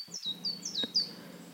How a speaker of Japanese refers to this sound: 木々が立てる音や小鳥のさえずりに意識を向けましょう